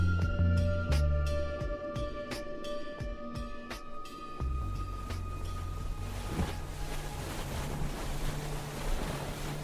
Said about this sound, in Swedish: Över Öresund studsar en liten gummibåt fram på vågorna.